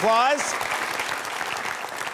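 audience applause

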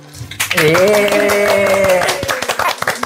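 small group applauding

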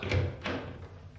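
knocking on a door

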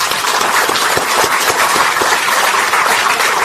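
applause

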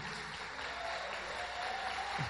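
audience applause

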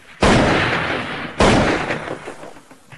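rifle gunshot

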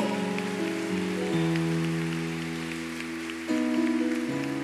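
audience applauding

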